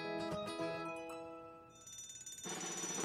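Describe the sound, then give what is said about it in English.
A loud fire alarm bell rings continuously with a bright, metallic clang. It turns harsher and noisier near the end, with no voices. “When the fire alarm rings, it would mean someone needs our help.”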